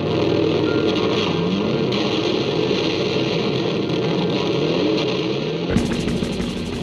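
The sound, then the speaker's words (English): Heavily distorted electric guitars in a song mimic a revving motorbike engine, a loud, continuous roar with rising and falling pitch sweeps that shifts abruptly to a brighter, higher drone near the end. “when I was listening to the song, me and my siblings would like sing along in all of the big parts and we were just hooked on the way that like the motorbike sound was created by guitars.”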